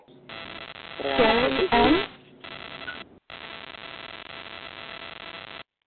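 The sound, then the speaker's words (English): A steady, hissing static fills a telephone line for several seconds, briefly overlapped by a muffled voice near the start, with a short cutout midway before the hiss resumes. “Um, there's a little bit of static on the line.”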